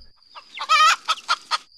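A chicken clucks: one drawn-out, squawking note followed by three short, quick clucks in a steady rhythm, clear and alone with no other sounds.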